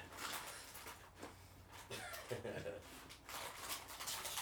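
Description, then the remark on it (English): A dog named Thor makes a commotion in a studio while trying to eat chocolate chip cookies: a steady run of scuffling, rustling and clattering bursts with short sharp knocks, continuous and fairly loud over a few seconds, with faint voice-like murmurs mixed in. “Well, that noise in the background is my dog Thor.”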